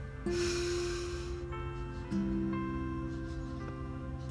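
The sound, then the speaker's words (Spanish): A slow, deep breath drawn in with an audible airy rush, then eased out more quietly, set over a soft, sustained musical drone with no talking. “Y con plena humildad, respirando profundamente,”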